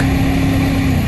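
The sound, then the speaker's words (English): The Cummins V8 turbo diesel engine of a 2016 Nissan Titan XD truck drones steadily, a loud, continuous low rumble with a humming tone riding on top and no voices. “This is the sound of the Cummins V8 turbo diesel in the new 2016 Nissan Titan XD.”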